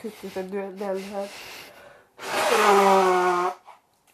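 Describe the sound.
A single loud nose blow into a tissue, a honking, noisy burst lasting over a second, preceded by short voiced, sniffly vocal sounds.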